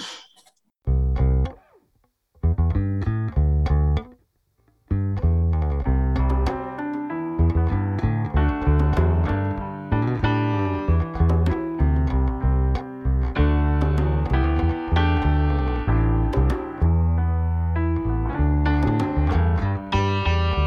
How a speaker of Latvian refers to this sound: Klausīsimies dziesmu!